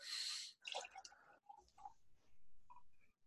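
A brief fizzy hiss gives way to soft, irregular glugs and drips as NWT Brewing Co. beer pours from a growler jug, quiet with no talking.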